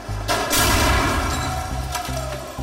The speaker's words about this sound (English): Yes, that shocking sound is from an HRV. It's smashing into a concrete wall. It's going about 35 miles an hour.